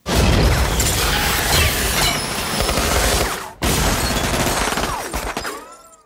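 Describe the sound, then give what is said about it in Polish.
A chaotic exchange of gunfire in a room after the lights go out, from a scene in Kurt Wimmer's 2002 film Equilibrium: loud, dense volleys of shots mixed with clattering crashes, cutting off abruptly partway through, then resuming before trailing away. No voices are heard. “No i nie wiemy, kto strzelał, kto kogo postrzelił.”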